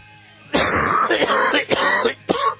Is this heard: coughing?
yes